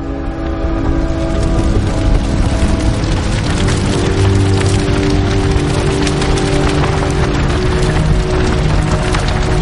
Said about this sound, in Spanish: El gigantón echa el contenido de un bidón sobre las paredes de la nave. Tira el bidón. Enciende un mechero y prende una antorcha. Aplica la antorcha al líquido derramado y prende toda la pared.